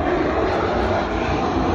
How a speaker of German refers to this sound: Jetzt fliegt gerade über meinem Kopf ein Flugzeug äh, und bringt die, die nächsten Besucher wahrscheinlich her.